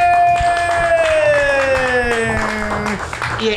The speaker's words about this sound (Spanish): Vamos a darle un aplauso, por favor.